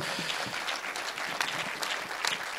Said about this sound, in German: So, gebt ihnen mal einen Applaus.